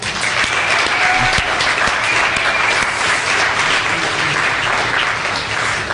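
An audience clapping steadily in the morning, a dense, sustained wash of applause that holds at an even loudness for the whole six seconds.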